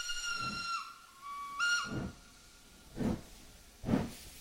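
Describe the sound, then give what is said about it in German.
A steam locomotive whistle sounds twice, a long sustained blast followed by a shorter one, over rhythmic chuffing bursts of steam that pulse steadily in the background, on a train hauled by two steam locomotives along a stretch of the Baghdad Railway in Turkey. “Ja, also wir sind ein Stück weit auf der Strecke der Bagdadbahn gefahren mit zwei Dampflokomotiven.”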